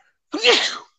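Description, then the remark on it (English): A single sharp sneeze bursts out loud, a quick intake then a breathy, noisy blast lasting about half a second before silence returns. “bless you”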